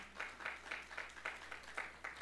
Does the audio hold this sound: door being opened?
no